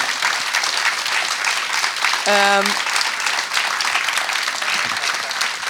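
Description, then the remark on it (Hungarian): Steady, dense audience applause for three conversation partners fills the whole clip, with a brief tonal cheer or whoop rising out of the clapping partway through. “Egy nagy tapsot szeretnék kérni mind a három beszélgető partnerünknek.”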